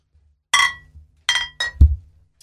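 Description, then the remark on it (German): Glass bottles of beer (Radler) clink together three times in quick succession in a toast, bright and ringing, followed by a dull knock as one is set down on a table. No one speaks. “Also Prost, Leute.”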